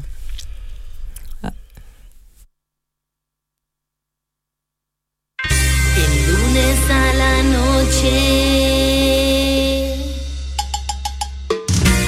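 After a few seconds of faint noise and a short silence, a song comes in loud and full, with a heavy steady bass and sustained tones that continue to the end.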